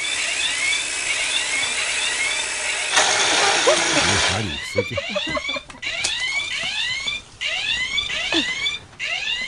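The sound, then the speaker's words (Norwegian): A flying alarm clock's loud electronic alarm wails in rising and falling sweeps, then breaks into rapid warbling chirps over a steady mechanical whir, continuous throughout; the howling comes before its propeller blade launches. “Skal vi spille av denne litt spesielle vekkerklokken? Hva het den igjen, sa du? Flying Alarm Clock.”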